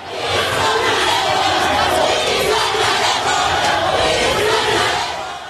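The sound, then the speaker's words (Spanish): Supporters of Marcelo Ebrard chant "piso parejo" loudly in chorus at Claudia Sheinbaum as she answers press questions on her way into a hotel, many voices shouting together in a steady, sustained roar with a rhythmic, rallying pulse throughout. “simpatizantes del exsecretario de Relaciones Exteriores, Marcelo Ebrard, le gritaron a coro, piso parejo cuando ella respondía preguntas de la prensa en su paso hacia la entrada del hotel.”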